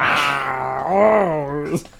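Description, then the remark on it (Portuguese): A person imitates a deep, guttural growl in one drawn-out, wavering vocal rumble lasting about two seconds, fairly loud, ending in a brief breathy burst. “Os rosnados do mestre ah, do cristal lá.”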